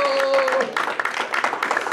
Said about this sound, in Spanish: denle una ofrenda de palmas al Señor, iglesia, y dígale gracias. Gracias, Espíritu Santo.